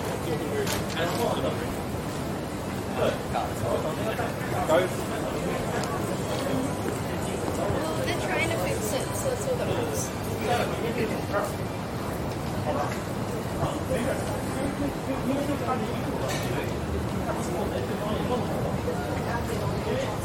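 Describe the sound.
A steady murmur of many passing voices fills a busy business district on George Street as businesspeople walk busily by, mixed with the brisk click of footsteps on pavement, continuous for the whole stretch.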